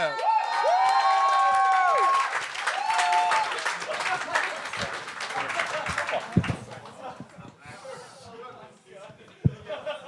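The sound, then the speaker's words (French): A comedy show crowd bursts into loud applause and cheering to welcome the last comedian, with whoops and shouts over dense clapping that gradually thins out, while someone talks over the noise. “Plus fort que ça! On l'accueille!”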